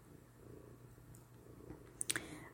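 domestic cat purring

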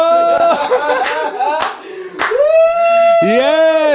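audience clapping

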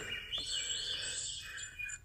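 alarm going off

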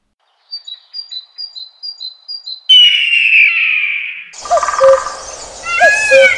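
birds chirping

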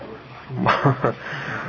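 dog whimpering and yipping

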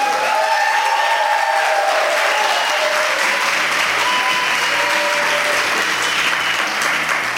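audience applauding and cheering

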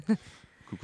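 dog making noises

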